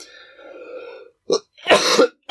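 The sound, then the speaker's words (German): A throaty, rumbling breath leads into a few sharp, forceful coughs, fairly loud, with brief pauses between bursts and no talking. “einfach mal ein guter Huster zu”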